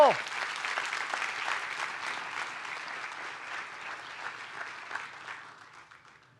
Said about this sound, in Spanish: ¿Cuántos dicen amén? Den un fuerte aplauso a Dios por eso.